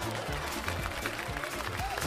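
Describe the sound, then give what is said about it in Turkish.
A short burst of steady applause, dense clapping from a crowd that fills the whole moment at a fairly loud, even level, with faint murmuring voices mixed underneath. “Çok iyiymiş alkış.”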